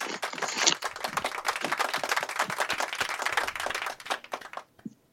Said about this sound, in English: We've got clapping.